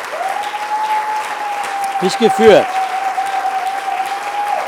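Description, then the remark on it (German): An audience applauds God with steady, dense clapping that lasts the whole time, over a constant high-pitched hum; a voice speaks briefly through the applause midway. “Wenn du da bist, wenn du da bist und wenn du wirklich weißt, er hat dich geführt, ja, dann gib doch Gott mal einen Applaus.”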